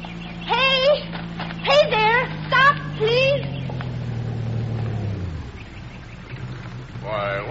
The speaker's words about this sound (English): Oh, hey, here comes a car. Oh. You get out on the road and flag it down.